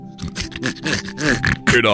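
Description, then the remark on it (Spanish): A person imitates a pig with a quick run of nasal oinks and grunting squeals, fairly loud, ending in a higher, strained squeal. “¿Como un puerco?”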